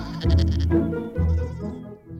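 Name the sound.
sheep bleating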